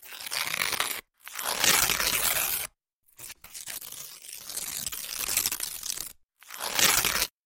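Loud paper being crumpled and torn by hand in several crackly bursts with brief silent pauses between them, the rustling and ripping continuing for several seconds at a time, recorded for a musique concrète piece.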